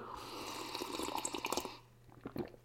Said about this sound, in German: Und äh, jetzt muss ich erstmal ein Schlückchen koffeinhaltige Milch, äh, Apfelschorle nehmen, zum Wohl.